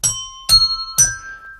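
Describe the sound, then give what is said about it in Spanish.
A bright electronic doorbell chime rings out three struck notes about half a second apart, each tone ringing on and fading, clear with no voices over it. “Ahora, por dos toques, llamada de timbre y otro ejemplo.”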